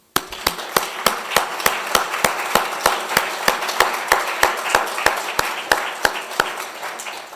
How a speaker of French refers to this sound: On n'imagine pas assez le travail que cela représente, je voudrais les remercier tout spécialement ce soir en vous demandant de les applaudir.